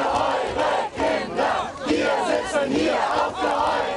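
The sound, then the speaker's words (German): A large crowd of climate activists shouts and chants together in loud, rhythmic bursts, voices overlapping continuously with brief dips between calls, at a protest in the village of Lützerath in a lignite mining area. “Lützerath, ein von unbeugsamen Klimaaktivisten bevölkertes Dorf, hört nicht auf, den Eindringlingen Widerstand zu leisten. Und deshalb klingt das gerade dort so.”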